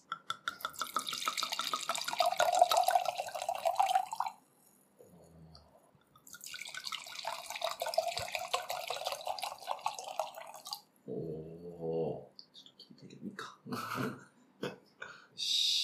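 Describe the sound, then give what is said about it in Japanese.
A drink pours into a glass in two long, steady streams separated by a brief pause, clear, followed by a few short clinks and knocks. “いきますこのまま開けたことですね。おー。入ったはず。いい音。”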